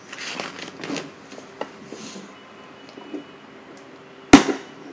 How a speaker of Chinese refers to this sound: 哇塞，好漂亮的烟花！